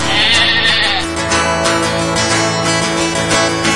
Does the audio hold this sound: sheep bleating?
yes